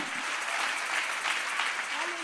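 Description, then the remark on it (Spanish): A church audience applauds God in a steady, dense wash of clapping throughout, with faint voices mixed in beneath it. “Yo quiero a alguien que aplauda a Dios y lo haga bien en esta hora.”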